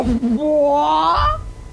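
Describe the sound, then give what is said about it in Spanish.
A person imitates a hen with one drawn-out, rising squawk lasting over a second, voiced fairly loud, followed by a brief low rumble. “¿Cómo se hace la gallina?”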